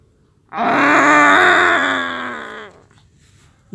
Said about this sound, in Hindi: गुर्राने की आवाज दोबारा आई बाघ यहां से काफी दूर है अंकल ने बताया लेकिन लगता है उसने तुम्हें देख लिया है और शायद वो तुम्हें यही बताना चाह रहा है